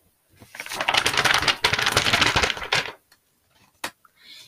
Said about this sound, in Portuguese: Vai chover. Eles ouviram um trovão